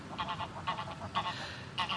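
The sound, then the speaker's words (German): Geese honk repeatedly in short, nasal bursts, several calls overlapping in quick succession, with a low rumbling outdoor background underneath, as apple pieces are offered to ducks and geese and an aggressive goose comes hissing. “So, ich muss mich jetzt ein bisschen beeilen, weil hier gerade nämlich schon eine ziemlich angriffslustige Gans angefaucht kam.”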